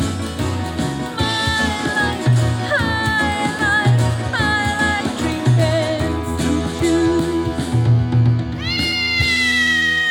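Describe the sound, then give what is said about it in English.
A cat meows and yowls repeatedly in a drawn-out, sing-song way, as if singing a song, loud, over a steady musical backing that runs throughout, with a final rising caterwaul near the end. “Here, play your song for them, Kitty Fruit Juice.”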